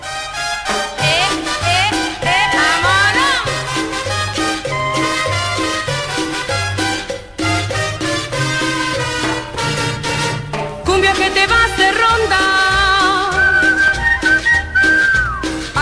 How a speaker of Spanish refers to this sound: Esta canción, con su ritmo contagioso, es un verdadero himno de la cumbia en México y en toda Latinoamérica. Disfrutemos juntos de esta joya musical.